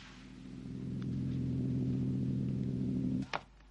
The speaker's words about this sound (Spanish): Igual que en Jerusalén, la señal en forma de latidos ha empezado. Ahí vemos el platillo y escuchamos los latidos.